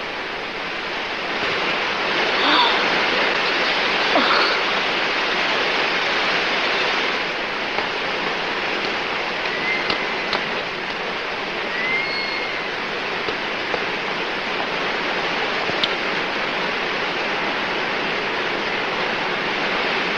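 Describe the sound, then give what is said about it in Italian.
Water of the Trevi Fountain in Rome splashes and rushes in a steady, dense roar that holds evenly for the whole stretch, fairly loud, with no voices over it. “Ad Anita all'improvviso appare Fontana di Trevi, rimane folgorata e vi entra.”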